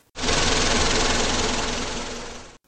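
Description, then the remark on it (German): The Forschermobil, a research vehicle, drives away with a loud, steady, rattling engine rumble and a broad noisy hiss. It eases off slightly over about two and a half seconds, then stops abruptly, with no voices. “Schon stiegen sie ins Forschermobil und fuhren davon.”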